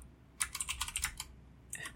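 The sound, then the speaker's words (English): Rapid keyboard typing of a Google search about dogs: a quick burst of crisp, clicky keystrokes, a brief pause, then a few more taps. The keys sound bright and moderately loud, with no voices. “Will I go to jail for googling this?”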